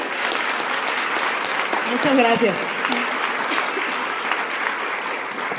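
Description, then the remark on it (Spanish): Sustained audience applause for those who attended a VIP training session, a dense wash of many hands clapping steadily throughout, with a woman's voice briefly speaking over it midway. “El día de ayer, eh, la anécdota se las conté a, aquellos que, por favor, un aplauso a los que estuvieron ahí en, el entrenamiento VIP, pues se lo ganaron.”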